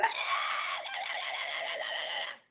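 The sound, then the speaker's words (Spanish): A woman imitates her own shrill, sustained yelling as a habitual shouter, about two seconds of high-pitched, strained yelling that holds steady and then cuts off abruptly. “ahora tanto no, pero si era la típica gritona que te, te da...”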